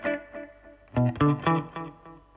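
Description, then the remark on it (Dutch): Electric guitar through a four-head tape echo with three heads switched off, giving a single standard echo: a few clear, sustained notes ring out, each trailed by softer repeats that decay over a couple of seconds. The guitar plays alone, moderately loud. “Dus dan heb ik gewoon eigenlijk mijn standaard, standaard echo.”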